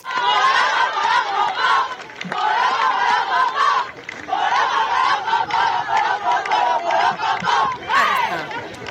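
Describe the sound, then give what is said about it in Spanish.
Players of the Gastei women's rugby team chant loudly in unison, a rhythmic, shouted team chant that carries on steadily for several seconds with only brief pauses between phrases. “Este era su cántico.”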